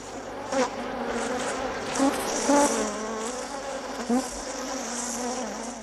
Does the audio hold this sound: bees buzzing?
yes